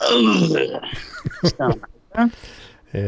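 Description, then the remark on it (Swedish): A voice imitates an old man's groaning grunt as he heaves himself up from a sofa, a strained, throaty drawn-out sound, followed by a few shorter effortful grunts and breaths, fairly loud. “man, man, när man reser sig från en soffa eller någonting så ska man”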